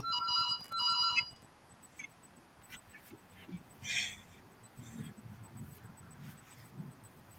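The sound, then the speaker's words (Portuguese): A phone rings with two quick bursts of a bright, warbling electronic ringtone, then stops, leaving low muffled murmuring and background noise. “Só um minutinho, gente, eu vou atender aqui.”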